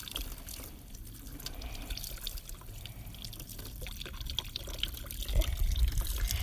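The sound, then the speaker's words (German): Steady running tap water splashing and trickling, with dripping and small sloshes as freshly dyed fabric is rinsed under the stream until no more dye comes out, growing slightly louder near the end. “Man muss das so lange auswaschen, bis keine Farbe mehr mitkommt.”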